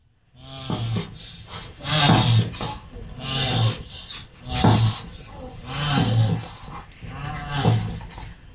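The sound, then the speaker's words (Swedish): Two tortoises mating: a series of loud, strained groaning grunts, about six of them, repeating in a steady rhythm with nothing else around them. “Alltså det här är en akt då mellan ja. två sköldpaddor?”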